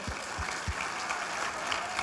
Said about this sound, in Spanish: Son los que están sirviendo hoy. Podemos dar un fuerte aplauso a ellos. Por favor.